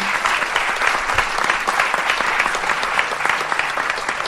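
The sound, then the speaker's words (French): A crowd applauds Cyprien steadily, dense overlapping claps forming a bright, crackling wash that stays at an even, fairly loud level for the whole stretch, with no voices over it. “On peut applaudir Cyprien.”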